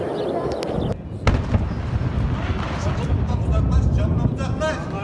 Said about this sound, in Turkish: Akvaip Şef Fabrikası patladı şu anda. Dumanlar bizim oraya geliyor.